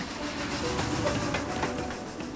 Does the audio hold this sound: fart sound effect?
no